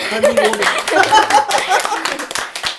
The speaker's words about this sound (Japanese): いや素晴らしいな。ちょっと拍手。